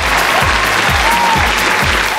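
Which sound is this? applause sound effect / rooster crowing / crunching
applause sound effect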